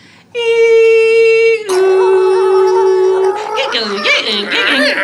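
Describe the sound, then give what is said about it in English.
A voice imitates a 56k dial-up modem: two long, steady buzzy tones, the second slightly lower, followed by a loud, garbled warbling and screeching burst. “Using a 56k dial up modem.”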